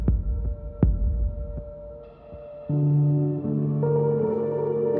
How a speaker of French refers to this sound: Si nous mettions nos stéthoscopes sur notre propre poitrine, nous entendrions la pause de la diastole.